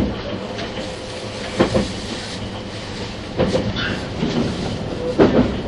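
A 651 series Super Hitachi 66 express train, running from Sendai to Ueno, runs on rails with a steady, broad rumble, broken by louder wheel-clack bursts at roughly regular intervals of just under two seconds. No one speaks.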